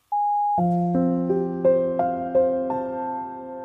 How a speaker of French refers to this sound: Merci de laisser un message après le bip sonore.